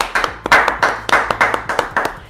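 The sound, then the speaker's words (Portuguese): A quick run of hand claps for Instagram during a live stream, about a dozen sharp slaps in a fairly steady rhythm, loud and crisp with no talking over them. “Palmas pro Instagram, palmas.”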